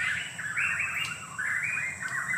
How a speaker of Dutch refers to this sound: Nee, dat is de prachtgeweervogel. Maar dat is heel spectaculair. De prachtgeweervogel die hebben een gewoon, gewoonlijk een dikke tak, een horizontale tak, waar dat die op landt.